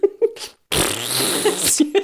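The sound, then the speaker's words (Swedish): A voice imitates a fart, blowing a long, loud, buzzy raspberry after a couple of short vocal bursts and a brief pause, clear with no talking. “jag är duktig på att göra pruttljud.”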